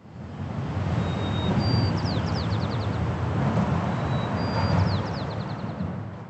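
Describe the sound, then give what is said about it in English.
A sparrow at the Golden Gate Bridge sings two repeated phrases, each a thin whistle followed by a quick run of descending chirpy notes, nearly buried under a constant loud roar of traffic. “In a normal year, the Golden Gate Bridge is bustling with activity and plenty of noise from traffic and tourists and wind.”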